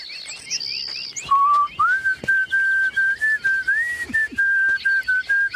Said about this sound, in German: Du kannst dann schön pfeifen.